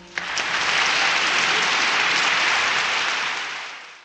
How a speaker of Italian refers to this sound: C'è ancora chi ride, poi un grande applauso.